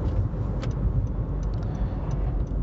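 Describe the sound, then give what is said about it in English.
A car's low engine and road rumble fills the cabin steadily, with faint light ticks above it, as if the vehicle is easing down to pull over. No one speaks. “So I'm purposefully stopping so I can read this to you because it's appropriate”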